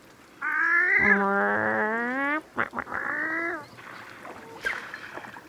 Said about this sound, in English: and that's a pair of wood ducks who just landed on the water nearby. Can you hear them calling?